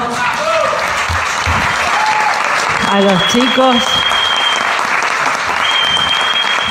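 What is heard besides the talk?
audience applause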